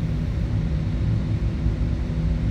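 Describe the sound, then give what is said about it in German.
A steady, loud low rumble of aircraft engines being started before takeoff at Cologne airport in excellent flying weather, a dense droning roar that holds an even level throughout with no voices. “Meine Anspannung steigt jetzt so kurz vor dem Start doch massiv ich starte die Motoren.”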